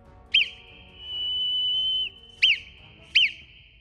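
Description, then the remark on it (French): A steady, high whistle tapping out Morse code signals, the first whistle of a coded message: a short blip, one long sustained tone, then two more short blips, clear with no talking. “Le premier sifflement.”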